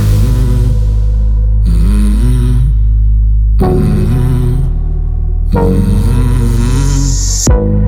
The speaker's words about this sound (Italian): Ma ahimè, io questo remix non l'ho capito a fondo, ha dei suoni bellissimi, ma non è efficace e efficiente, secondo me, come l'original. Però mi è sembrato giusto politicamente farvelo ascoltare.